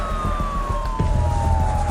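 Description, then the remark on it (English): Police sirens wail in a long, steady tone over the low rumble of traffic, fairly loud, as two squad cars race up an incline, with the engine noise growing stronger partway through. “Two squad cars are racing up the incline toward him.”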